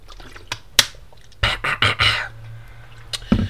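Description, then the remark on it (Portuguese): A sip of water: a few sharp clicks and taps, then a quick run of wet gulping swallows, followed by another faint click. No one speaks. “Um, mas pronto, estou a deixar crescer e vou dar aqui um gole d'água.”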